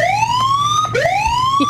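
A loud siren sound effect, used as a spoiler alarm, wails with two rising sweeps, the pitch climbing steadily, dropping abruptly just before the second rise, with bright harmonics and a low rumbling hum underneath.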